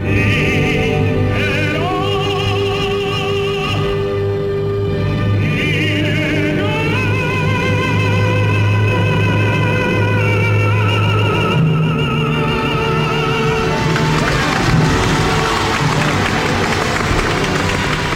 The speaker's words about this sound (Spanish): Bueno estos aplausos que le dan los napolitanos son los aplausos que todos los andaluces le damos a la carrera de Pedro la Virgen.